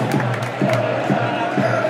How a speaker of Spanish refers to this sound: Aplaude el público.